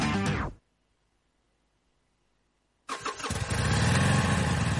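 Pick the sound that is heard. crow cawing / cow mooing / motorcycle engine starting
motorcycle engine starting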